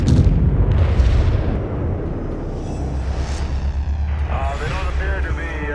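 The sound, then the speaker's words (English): Loud, deep explosions burst at the start and roll into a sustained, heavy rumble, with wavering voices rising over the din toward the end, part of a Wilkinson Audio drama production. “You should experience lots of explosions with no body parts.”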